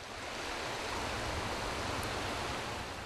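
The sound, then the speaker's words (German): The Capra, a mountain river, rushes steadily in a dense, even roar of flowing water, constant throughout, with no voices or other sounds. “fängt hier an der Capra seit seiner Kindheit am liebsten Bachforellen oder europäische Eschen.”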